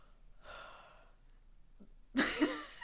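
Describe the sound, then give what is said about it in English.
A person gives a sad yawn: a soft, breathy inhale, a short pause, then a loud, drawn-out voiced exhale that trails off at the end. “Yawns. So in, upset.”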